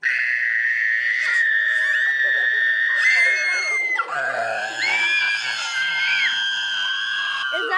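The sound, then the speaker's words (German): Several high-pitched children's voices scream loudly and continuously into a glass, trying to shatter it, overlapping shrill tones held for several seconds with a brief dip midway; the glass does not break. “Also mehr Power als ich haben die auf jeden Fall, würde ich sagen. Aber auch da ist kein Glas zersprungen.”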